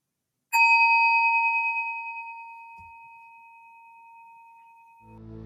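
A single meditation bell is struck once, its clear bright tone ringing out and slowly fading over several seconds before a voice begins speaking at the very end.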